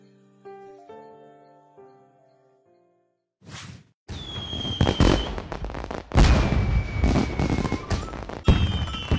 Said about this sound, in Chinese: 第一次在建水镇过年，热闹的气氛别有一番情趣。接连不断的鞭炮声勾引出暮云兄妹俩的童心大发，也学着人家在院子里玩起爆竹来。